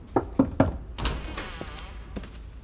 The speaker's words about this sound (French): frappe à sa porte.